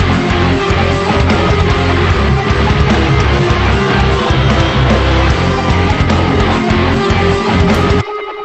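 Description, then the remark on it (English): A loud, dense rock band intro section with a driving distorted guitar riff over heavy programmed drums and bass, playing steadily for about eight seconds before cutting off abruptly. “So yeah, that you've got that guitar part that kind of continues that highlight.”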